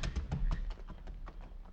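A horse's hooves clop in an uneven series of hollow knocks as the horse is led outside, fairly quiet against a low background rumble, with no voices.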